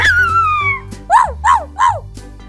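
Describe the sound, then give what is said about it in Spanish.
A dog named Rocco lets out a falling whine, then, after taking a big breath, barks as loudly as he can three times in quick succession, with no talking around it. “Ante aquel grito, Rocco se paró, tomó mucho aire y gritando todo lo fuerte que podía, ladró diciendo...”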